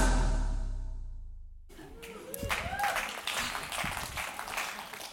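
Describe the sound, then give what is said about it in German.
A sustained musical chord fades out, then an audience at ISF Bern breaks into loud, dense applause that swells and carries on steadily to the end, with a few voices mixed in. “Der Applaus gehört denen, die jetzt von der Ferien aus äh, den Livestream schauen.”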